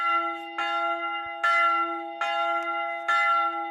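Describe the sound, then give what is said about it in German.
The bell on the roof of the Bell Tower, a former prison tower, rings in steady, evenly spaced strokes, four clear strikes each blooming with a long, humming resonance that overlaps the next. Loud, with no voices. “Bis heute befindet sich auf dem Dach die Glocke, die früher jeweils eine Stunde vor der Hinrichtung geläutet wurde.”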